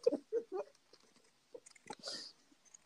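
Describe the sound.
Someone mimics a dog with three quick, loud barking yelps, followed by scattered softer vocal noises and a breathy hiss.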